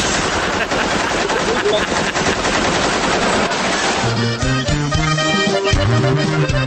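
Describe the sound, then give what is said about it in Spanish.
Loud, rapid bursts of automatic AK-47 ('cuerno') rifle fire rattle continuously for about four seconds, then give way to music with brass and bass. “¿500 balazos? Armas automáticas. Pecheras portaban. Y de cuerno las ráfagas.”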